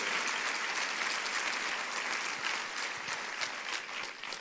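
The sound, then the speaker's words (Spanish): An audience claps together in sustained, dense applause for the King of Kings, Lord of Lords, a steady crackle of many hands that holds level throughout with slight swells, no voices standing out. “¿Cuánto da un aplauso al Rey de Reyes, Señor de los Señores?”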